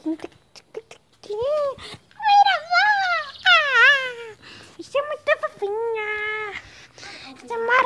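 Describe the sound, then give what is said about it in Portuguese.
A small dachshund whimpers and whines in a rapid string of high, wavering cries, each bending up and down in pitch, with brief pauses between bursts. “Não é cachorro é cachorro molho, não. É piaba salsicha.”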